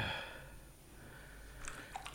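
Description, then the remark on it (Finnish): Someone drinking cold, clean, fresh water: quiet swallowing and wet mouth sounds, with a couple of soft gulps near the end and no speech. “Kylmä vesi, kuinka hyvää sinä teet.”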